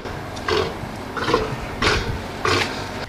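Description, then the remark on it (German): A South American (Patagonian) sea lion gives four rough, grunting barks at an even, steady rhythm, moderately loud, over a low, constant background rumble. “Ein patagonischer Seelöwe, eine Mähnenrobbe. Die Robben mit der Löwenmähne. Ja, da hätten wir drauf kommen können tatsächlich. Die machen ja putzige Geräusche hier.”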